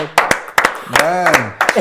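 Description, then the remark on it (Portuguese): Scattered applause: a few sharp, uneven hand claps in quick pairs, with a short rising-and-falling voice sound in the middle. The applause welcomes a performer during the filming of a comedy piece. “Uma salva de palmas, só”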